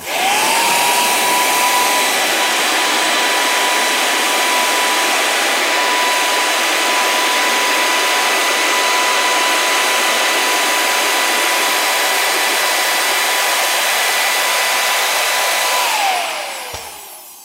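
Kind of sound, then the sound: machine, leaf blower running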